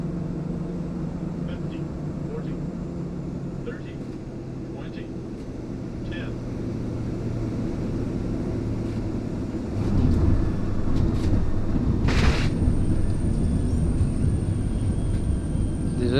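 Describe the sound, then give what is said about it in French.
A steady, loud engine drone fills the cabin of a very small airplane carrying about 14 people, in flight from Cayenne toward Saül over the Amazon forest. A constant low roar with a brief hiss burst near the end and faint muffled voices underneath. “C'est un tout petit avion, on est quoi On était 14 je crois dedans.”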